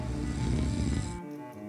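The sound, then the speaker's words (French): A single loud, rasping snore with a throaty, rattling drone that lasts about a second, then fades into a quieter breathy tail. No one speaks. “Oups, désolé, le tu dois est devenu quelque chose d'un peu ronflant pour moi.”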